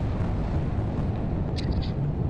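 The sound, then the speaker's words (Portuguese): A deep explosion in the Gaza Strip at night rolls through as a steady low rumble, heavy and muffled, with faint higher chirps flickering briefly near the end and no voices. “olha aí, mais uma explosão, hein? No meio da escuridão da faixa de Gaza.”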